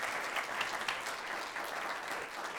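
An audience applauding with steady, dense clapping that holds at an even level throughout, a continuous wash of many hands with no voices rising above it.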